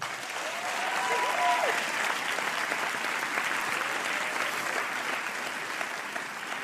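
A steady round of applause, many hands clapping in a dense, even patter that holds its level for several seconds, with a brief whistle or cheer rising early on.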